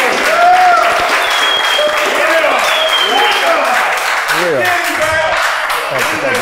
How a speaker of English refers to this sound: This some legendary shit. I want everybody to start clapping right now. This some legendary shit in here.